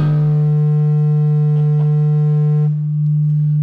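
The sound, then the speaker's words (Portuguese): A loud, steady audio feedback squeal rings as a sustained pure tone with stacked harmonics, holding for several seconds before its upper overtones drop away while the main hum continues. “aqui está dando uma microfonia razoável.”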